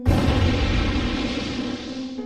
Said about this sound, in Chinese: 即将冲往山顶的最后一个盲弯前，车子引擎突然发生一阵巨响，